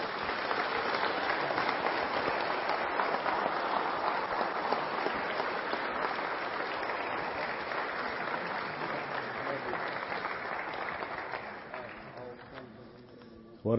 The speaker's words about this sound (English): How about a little hand clap to the Lord Almighty?